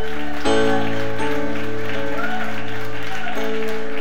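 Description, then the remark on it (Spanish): An audience claps in a steady, crackling wash of applause that runs the whole length, layered over sustained keyboard chords that shift once or twice. “Alguien levante ese aplauso en esta hora.”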